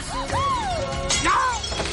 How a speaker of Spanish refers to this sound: Se cae una pila de platos.